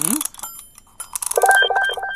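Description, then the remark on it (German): Rapid ratcheting clicks of a mechanical alarm clock being wound, followed by a short burst of bright metallic ringing from its bell. “Dann werde ich jetzt mal ganz schnell, ganz, ganz schnell den Wecker aufziehen.”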